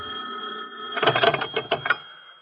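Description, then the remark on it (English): An old telephone bell rings at night in a rapid burst of clattering pulses for about a second, loud, over a steady background hum. “I just settled myself for some sleep that night when the telephone rang.”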